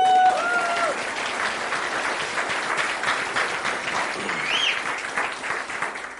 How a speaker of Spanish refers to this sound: Desen un fuerte aplauso.